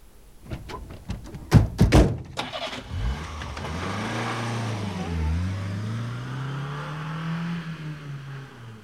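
A car engine cranks with a few sharp mechanical clicks and thunks, catches after a couple of seconds, then settles into a steady running hum that rises and dips slightly as it idles and revs.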